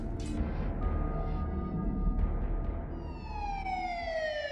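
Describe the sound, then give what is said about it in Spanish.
A police siren wails in over a steady low rumble of street noise, its rising and falling tone growing stronger during the final seconds as the first police patrol car draws closer and arrives. “Para cuando llega la primera patrulla y los policías fuerzan la puerta para entrar”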